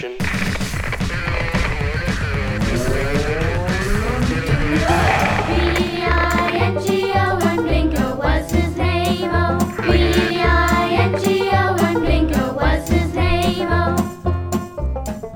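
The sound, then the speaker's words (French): A loud radio show jingle: bright, layered music with swelling tones in the first seconds, then a punchy, steady bass-driven beat with stacked harmonies carrying it to the end. No talking. “Jingle.”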